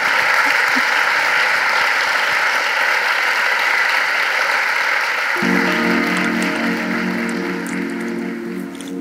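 Sustained audience applause thanking author Colson Whitehead at the end of a conversation at the Capitol, part of the World of Words series, recorded 24 May 2023: a dense crackle of many hands clapping at steady volume; midway a low musical tone or hum fades in beneath it as the clapping continues.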